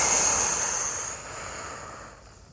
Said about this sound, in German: Und jetzt atmen wir acht Sekunden richtig aus und das durch den Mund. Der ganze Mist muss raus. Puh.